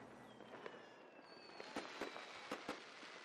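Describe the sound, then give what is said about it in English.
Chinese-made fireworks pop and crackle in quick succession, with sharp bangs around the middle and end over a steady hissing backdrop and faint whistling tones. “and this these fireworks are making me really feel patriotic, even though they're Chinese.”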